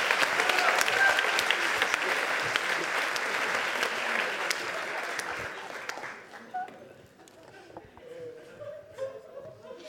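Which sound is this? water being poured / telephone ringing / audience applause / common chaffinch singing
audience applause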